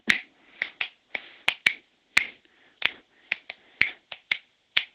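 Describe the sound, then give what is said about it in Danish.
A rapid series of sharp, crisp finger snaps, about fifteen in five seconds, in an uneven rhythm with brief gaps between bursts and no voices, as someone snaps out a polymetric rhythm. “Og jeg blev ved med at prøve at knipse det for ham”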